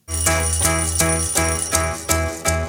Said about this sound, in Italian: Naturalmente decidono di non cancellare la sveglia, che si sente infatti molto bene sul disco.